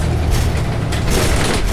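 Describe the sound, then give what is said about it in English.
Inside a moving city bus driving uphill and filling up with passengers, approaching the McAllister and Pierce stop for Alamo Square Park, a loud, steady engine drone with deep low rumble and a constant wash of road noise fills the space, with no voices. “Filling up as we head up the hill. Yeah. Yeah, we got on the bus and it was empty.”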